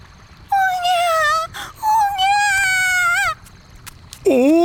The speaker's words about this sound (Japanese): そばの草むらから赤ん坊の泣き声が聞こえてきました赤ん坊かおじいさんが恐る恐る近づいてみるとなんとそこにはおばあさんの着物を着た赤ん坊が顔を真っ赤にして泣きじゃくっているではありませんか